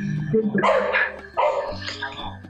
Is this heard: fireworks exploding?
no